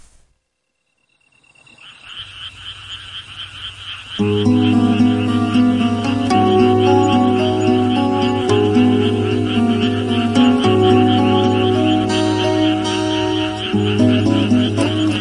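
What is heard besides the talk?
grass insects chirping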